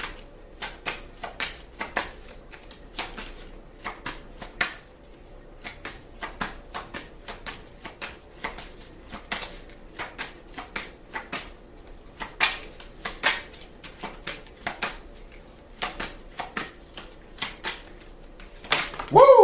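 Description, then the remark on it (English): A deck of cards being shuffled for a card reading until two cards come out, with a long run of sharp, crisp clicks and flutters coming in uneven bursts, fairly quiet and steady throughout, with no one speaking. “okay, two cards came out. That'll work. May I have another card, please?”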